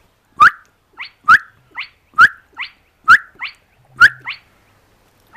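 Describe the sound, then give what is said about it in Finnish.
A spotted crake more than a kilometre away gives its whiplash-like song over and over, a sharp rising whistle roughly once a second, each loud note followed by a fainter echo-like repeat against a quiet background. “Kai tätä ääntä voi kutsua myös huitin lauluksi. Alle sekunnin välein kajahtava sivallus”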